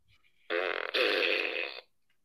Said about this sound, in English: Yeah, I'm farting to you, buddy.